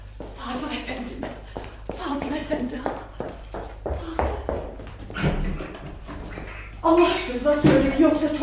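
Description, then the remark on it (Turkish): A few sharp knocks on the door of a house, fairly loud, mixed in with people talking throughout. “Kim o? Kapıyı vuran kim?”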